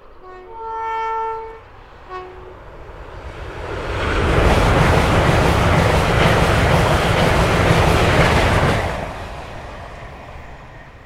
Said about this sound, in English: Oh, here he comes. This is a high-speed train.